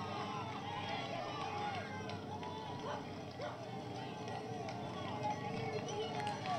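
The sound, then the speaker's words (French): Roadside spectators cheer and shout continuously for world champion cyclist Julien Alaphilippe as he passes, many overlapping voices forming a dense, steady roar that stays loud throughout. “Les encouragements évidemment pour euh, Julien Alaphilippe, le champion du monde sur le bord de la route.”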